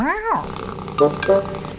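animal, cat meowing

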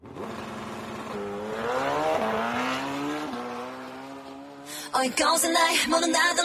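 vehicle, motorcycle engine revving

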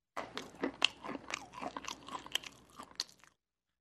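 food or drink, crunching popcorn

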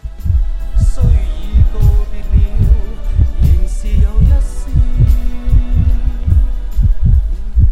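sound effect, pounding heartbeat sound effect

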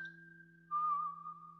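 human body sound, person whistling a tune

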